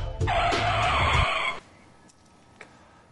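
A car brakes hard with a loud, sustained tire screech lasting just over a second over a low rumble, then cuts off abruptly into near silence with a faint click.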